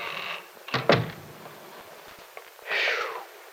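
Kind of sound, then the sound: household object, door being closed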